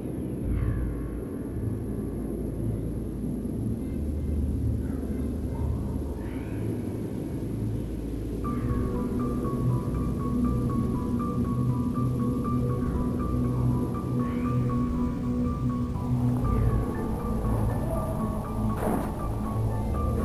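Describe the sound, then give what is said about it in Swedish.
A river flows steadily for about twenty seconds, its continuous low rushing murmur even and unbroken, with a few faint higher chirps and a thin tone drifting over it. No one speaks. “Så då eh, blundar vi och vilar lite och så lyssnar vi på ett år-ljudet.”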